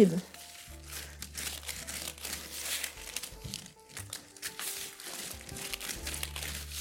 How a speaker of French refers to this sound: nos deux feuilles de papier sulfurisé et on va décoller la feuille du dessous. On voit que ça fait des, des petites rides sur la pâte. On décolle la feuille et on la recolle.